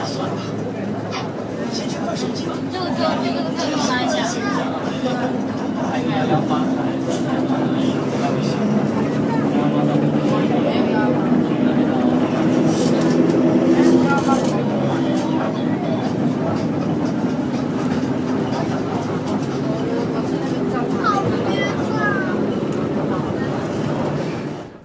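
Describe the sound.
Inside a city bus, a steady low engine rumble runs throughout at a fairly loud, even level, with people talking and other voices layered over it: advertisements, radio, a stop announcement for Bailuzhou Park station, and phone calls.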